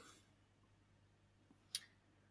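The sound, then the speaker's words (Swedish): A single crisp, brief mouse click, selecting the film Groundhog Day, snaps out of near-silence with a faint low hum; nobody speaks. “Eh, men eh, Groundhog Day klickar jag på där.”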